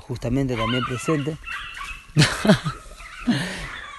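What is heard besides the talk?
dog whining and crying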